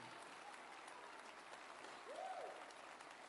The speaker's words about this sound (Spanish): Gloria al Señor. Aleluya. Dios es bueno. Amén. Si le vas a aplaudir, apláudele bien.